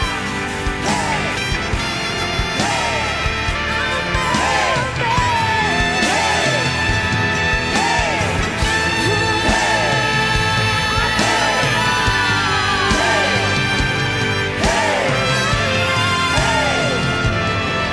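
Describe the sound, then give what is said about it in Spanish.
A church audience shouts and yells together, a dense, loud wash of many voices with repeated rising-and-falling cries over a steady, full background that never lets up. “Si eres generación de conquista, corre al altar y grita con nosotros, porque viene una poderosa victoria.”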